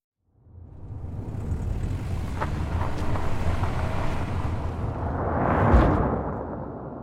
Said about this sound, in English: You have a hose across the road, and every time a car goes over it, six thousand four hundred fifty-eight. It counts.